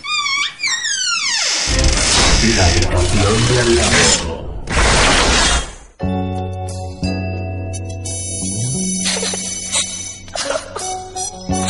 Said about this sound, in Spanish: vamos a soltar el tema de …. Es un tema muy, muy guapo y suena así de bien